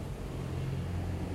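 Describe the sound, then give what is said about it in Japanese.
Steady low engine rumble from road traffic on Kyu-Yamate-dori in Daikanyama, heard from the terrace seating of Tsutaya Books, a car passing with a continuous hum and no distinct horn or voices. “車の声音が入っていると思いますけど代官山のえー、旧山手通り沿いにある蔦屋書店ですねの、えー、テラス席で収録中です、うん”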